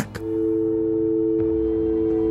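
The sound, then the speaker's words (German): A short click as the caller hangs up, then a steady electronic telephone busy tone hums continuously at moderate volume until the end, with no voices. “Da kann doch jetzt kein UFO kommen, er hat aufgelegt.”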